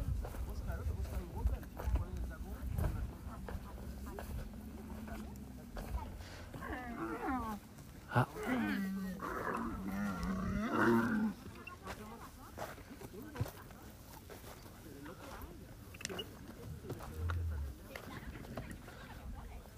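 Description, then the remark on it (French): Dromedary camels at night let out a few deep, gurgling moans and grumbles in the middle stretch, over a low, steady outdoor rumble with quieter shuffling around them. “Je vais me déplacer pour essayer de les entendre quand ils sont entre eux.”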